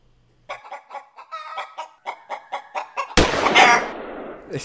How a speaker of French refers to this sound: Alors je sais pas si tu l'entends, mais du coup on a une poule qui se prend un énorme coup de fusil, c'est vraiment génial, j'adore ce générique.